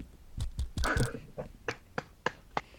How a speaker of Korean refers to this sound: 아, 박수.